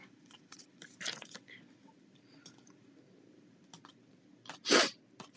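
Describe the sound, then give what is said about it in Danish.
Repeated sniffling: a few short, breathy nasal sniffs at irregular intervals, then one louder, longer sniff near the end, over faint background rustle with no talking. “Snøft, snøft, snøft. Det må I tage med i dag. En masse snøfterier.”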